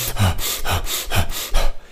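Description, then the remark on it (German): Rapid, heavy panting, about four quick breathy gasps in under two seconds, as after an all-out 200-meter sprint, with no talking. A voice is acting out the panting as part of a breathing exercise. “Ihr würdet versuchen, ganz viel Luft ein, reinzuholen und das simuliert ihr eurem Nervensystem.”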